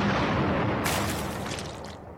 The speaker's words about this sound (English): then they took all the writings and stuffed them into a cannon and shot the cannon at the wall.